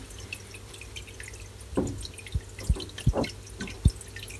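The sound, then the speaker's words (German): A tomcat sniffs at a microphone: a handful of short, irregular puffs and soft low thumps over a faint background hiss, with no one speaking. “Na gut, am Mikrofon schnüffeln gilt auch.”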